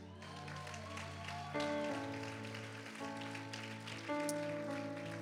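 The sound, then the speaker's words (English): An audience claps steadily for high school graduates, a dense patter of many hands, while sustained musical chords ring over it and shift several times. “Can we give them a big hand clap?”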